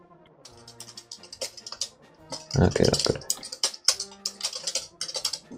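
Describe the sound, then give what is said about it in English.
Rapid, irregular clicking of keys on a computer keyboard runs steadily throughout, crisp, with a short spoken phrase briefly overlapping the typing. “typing. sounds like you're hacking in an old school movie.”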